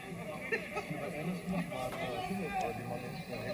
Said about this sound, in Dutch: Ja, dat zijn supporters. Dat hoor je.